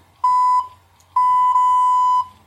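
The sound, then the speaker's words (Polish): A phone beeping as its camera shutter is pressed to take a photo: two steady high electronic tones, a short one followed by a longer sustained one after a brief pause, loud and clear with no talking. “No, się nie może zdecydować, a już nie piszczy.”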